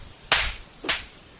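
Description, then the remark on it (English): Two sharp, crisp slaps from a glove, about half a second apart, the first slightly louder, with no voices. “Did you just slap me with a glove?”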